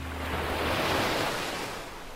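Mediterranean sea waves, recorded aboard the NGO rescue ship Sea-Watch 3, surge in a steady rushing wash that swells and slowly eases, with a faint low hum and wind beneath, and no voices.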